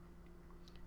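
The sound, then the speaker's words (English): Faint, wet chewing and soft clicking bites from Oxy, a pet, eating in the background, a few scattered mouth sounds over a steady low electrical hum, with no one speaking. “Also, Oxy is eating in the background, so that's what that noise is.”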